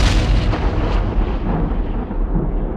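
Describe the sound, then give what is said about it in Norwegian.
A massive explosion effect representing the Big Bang: a loud, deep roaring rumble that fills the whole clip, heavy in the low end, with the hiss above it slowly fading. No one speaks. “An event called the Big Bang.”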